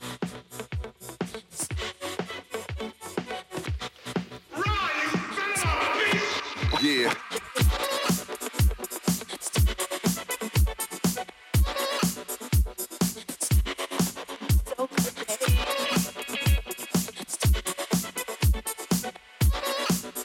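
A pop song plays at full volume on the Garasjen show of Radio Revolt, driven by a steady thumping kick drum under layered synths and a sung vocal line that swells midway before the beat carries on.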